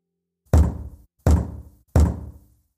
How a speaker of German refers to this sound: Am Morgen klopft es an seiner Tür.